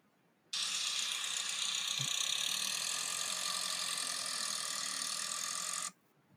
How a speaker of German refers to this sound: Na, er gibt nicht so richtig Gas, ja, ne? Er fährt gerade los. Das hat sich ja eher angehört wie ein Diesel.